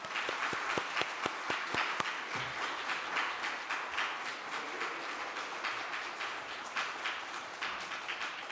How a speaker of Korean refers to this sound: 말씀 여러분 잘 들으시고 어, 우리 환영하는 마음으로 박수로 우리 목사님 맞이하시겠습니다.